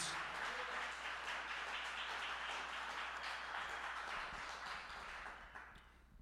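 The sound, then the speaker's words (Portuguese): Sustained applause from a large audience at a Portuguese-language church service, applauding the Lord: a dense, even wash of many hands clapping that holds steady for several seconds before tapering off at the end. No one speaks over it. “Manda o seu melhor aplauso, em nome de Jesus.”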